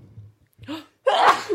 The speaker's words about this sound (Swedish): Atjo prosit.